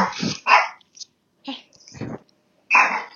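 A dog barks in a run of loud, harsh, raspy bursts, about five in all, spaced irregularly with short silent gaps between them.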